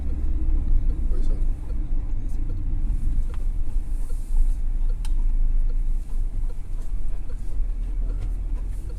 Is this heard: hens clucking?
no